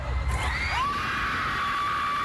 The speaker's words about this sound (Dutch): Dat hoor je aan het gegil.